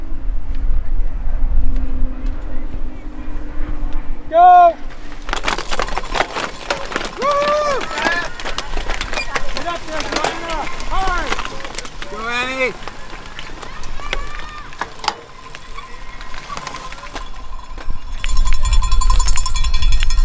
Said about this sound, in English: You just heard the start of the women's race of the Eastern Ontario Cyclocross Series, uh, fourth round, I believe. Uh, we're here on location in Ottawa.